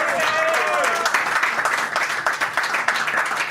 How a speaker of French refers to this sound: Bonsoir tout le monde, merci. Et eh ben, vous pouvez l'applaudir encore une fois.